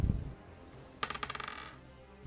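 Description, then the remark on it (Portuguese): Dice clatter across a hard table in a quick burst of rattling clicks that speed up and fade out, preceded by a dull low thump, fairly loud, with no talking. The dice are rolled for a perception check with advantage. “Então eu vou jogar percepção é com claro.”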